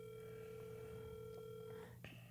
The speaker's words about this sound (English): He ain't picking up.